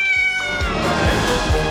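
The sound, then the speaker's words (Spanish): A hungry female domestic cat meows insistently, a loud, drawn-out, whining cry that wavers in pitch and carries on almost without pause. No one speaks. “tuve que abrazar a mi gata después de esto”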